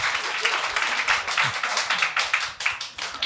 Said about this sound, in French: On peut applaudir. On peut m'applaudir. T'as raison.